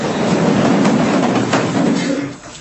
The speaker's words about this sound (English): That's the sound of 74 people standing up to be sworn in when they're shackled at the ankles and chained around the waist. They all had one hand that was cuffed tightly to the waist chain and just one hand free.